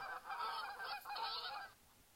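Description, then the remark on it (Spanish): Geese flying in formation honk in a noisy, overlapping burst lasting about a second and a half, harsh nasal calls crowding together before cutting off into quiet. “Los gansos que van detrás producen un sonido propio de ellos y lo hacen con frecuencia para estimular a los que van delante”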